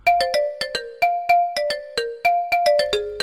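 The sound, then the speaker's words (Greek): A phone's messaging app ringtone plays alone, a bright electronic melody of quick plucked tones with a steady rhythm, loud, repeating its short phrase for about three seconds. “Θέλω όταν κάνει αυτόν τον ήχο να ξέρω ότι είναι αυτή.”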